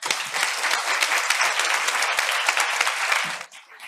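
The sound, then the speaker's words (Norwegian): An audience applauds a panel, clapping steadily in a dense, sustained wash lasting several seconds, then the clapping thins out and fades toward the end. “Og vi gir panelet en stor applaus.”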